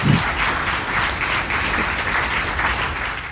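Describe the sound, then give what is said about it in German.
A crowd applauds steadily for Sigi Maurer at the close of a discussion, a dense wash of many hands clapping at once that stays loud and even for a few seconds without any voices. “Einen kräftigen, kräftigen Applaus, Passt.”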